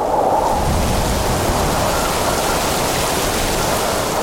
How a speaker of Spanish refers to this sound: Y luego es la lluvia, esas bandas de lluvia tropical constantes, muy intensas, que pueden producir algunos tornados y que evidentemente con que eso dura durante muchas horas se dan esas inundaciones.